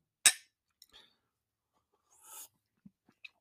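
A single bright clink of glasses touching in a toast, ringing briefly before fading, followed by a few soft clicks and a short rustling swish, with no voices.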